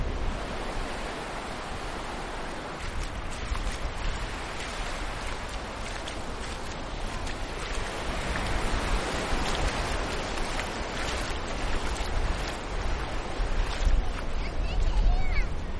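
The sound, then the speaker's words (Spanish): A steady, broad roar of ocean surf washing onto a beach, with gentle swells in loudness toward the end and a windy rush over the microphone. “Estoy grabando las olas, pero tarda un minuto y ahora voy a jugar.”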